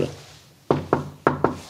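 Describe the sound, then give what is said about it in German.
Four sharp knocks on an office door at the Kirchliche Arbeitsstelle Südliches Afrika in the Welthaus Heidelberg, struck in two quick pairs with a short pause between them, over a faint low hum. “Und jetzt klopfen wir mal.”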